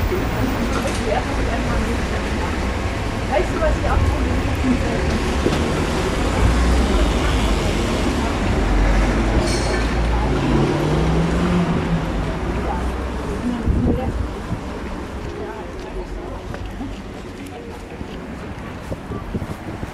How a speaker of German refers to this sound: Hier gibt es gerade nicht so viele Geräusche, oder? Also die Autos, der Wind.